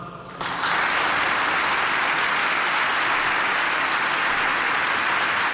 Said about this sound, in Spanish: muchas gracias, Santo Padre. Un aplauso.